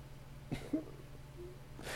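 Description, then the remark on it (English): A quiet, short cough bursts out once, followed by a faint throaty sound and another breathy burst near the end. No one speaks. “I want the Colorado cough. yeah, there you go.”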